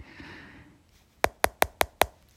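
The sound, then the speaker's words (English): Five sharp, hard knocks of a rock hitting ice land in quick, even succession, loud, following a second or so of faint background hiss. “And so he started to take a rock and he hit it on the ice, just like that.”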